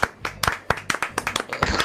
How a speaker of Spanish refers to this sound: Un aplauso para el